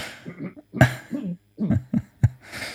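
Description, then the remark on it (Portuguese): A man coughs several times in quick, uneven bursts and clears his throat, fairly loud, with short breaths between and no speech. “Tu já tossiste umas quantas vezes, meu amigo.”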